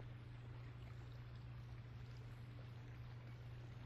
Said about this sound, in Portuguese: Sinta esse fluxo da água do rio como sendo da sua respiração que flui nas águas de sua mente.